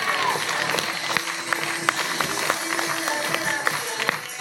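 An audience applauds steadily for the whole stretch, a dense wash of clapping with sharper individual claps popping out now and then, holding a fairly even loudness.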